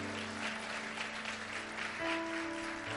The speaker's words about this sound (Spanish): Y, vamos, si vas a aplaudir para Dios, aplaude bien.